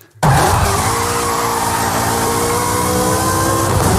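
A high-revving Ferrari F355 V8 engine screams loudly, kicking in abruptly and holding a sustained, strongly tonal roar for about four seconds with no voices.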